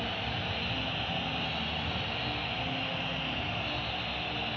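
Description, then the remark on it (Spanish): A huge stadium crowd whistling in protest as the anthem plays before a final, a loud, unbroken wall of shrill whistles and roaring noise that holds steady for several seconds with no voices standing out. “La pitada es tremenda.”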